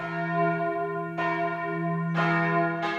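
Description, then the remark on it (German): Church bells ring in the tower of the Beuerbach church, four bells in use there since 2016, with fresh strikes landing about every second over a sustained, humming drone of overlapping tones. They sound loud, with no voices. “Im Turm der Beuerbacher Kirche schaut Pfarrer Martin Rudolf zufrieden auf die Glocken, die nun seit 2016 das Gemeindeleben akustisch begleiten.”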